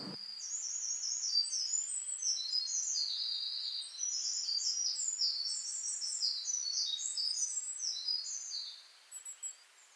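Small birds chirp and trill continuously in a forest, many high, rapid calls overlapping, with no voices present. The chorus thins out briefly near the end.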